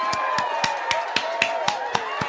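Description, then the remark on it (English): A studio audience claps: roughly nine sharp, evenly spaced claps in a steady, quick rhythm, moderately loud over a faint sustained tonal hum, with no talking. “Uh, studio audience, I want you to clap.”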